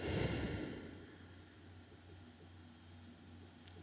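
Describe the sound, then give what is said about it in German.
A slow, airy exhalation during a guided breathing exercise, strongest at the start and fading into a quiet background hum, with no talking. “Und ein und aus.”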